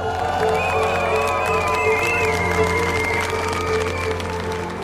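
A large street protest crowd of thousands of demonstrators in Germany cheers and shouts continuously, a dense, steady roar with rising whistles and raised voices layered over a constant low rumble.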